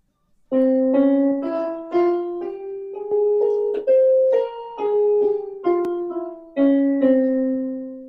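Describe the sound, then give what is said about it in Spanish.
A Phrygian dominant scale, given as an example of the scales of Egypt, played on a melodic instrument, single clear notes stepping upward and then back down at a steady, unhurried pace, each note struck and ringing briefly, with no voices. “Hay una, por ejemplo, esta, que viene siendo, se conoce también como frigia dominante, y suena así.”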